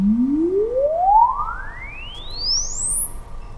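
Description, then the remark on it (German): A smooth electronic tone from a loudspeaker in the mouth of a robot shaped like a moving shop-window mannequin sweeps steadily upward through all frequencies, from a low hum to a very high whine over a few seconds, testing how the room responds, with no talking. “Wir gehen alle Frequenzen einmal durch und schauen, wie der Raum darauf reagiert.”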